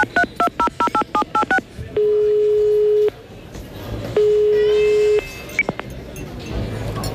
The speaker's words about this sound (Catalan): Passa'm el telèfon, que, que he de trucar